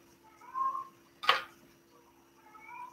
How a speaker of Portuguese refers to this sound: Estou escutando o gatinho, né? Hoje ele está atacado, só tá miando.